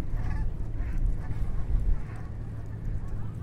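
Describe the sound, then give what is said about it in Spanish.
A flock of Canada geese passes by near the Lower Manhattan ferry terminal in New York, honking, several scattered calls rising over a steady low rumble of wind or engine noise, with no one speaking. “No sé si se ha podido escuchar el sonido de una bandada de... Eh, bandada de gansos de Canadá, Canadá Geese que suelen estar eh, por estas por estos prados, ¿no?”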